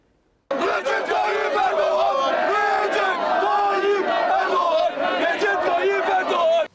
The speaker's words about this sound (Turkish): O sırada saygısız bazı kesimler Recep Tayyip Erdoğan diye bağırmaya başladılar.